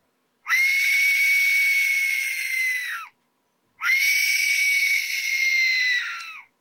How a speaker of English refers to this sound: I don't remember what these sounded like, the ring wraiths. Wait, this might be it.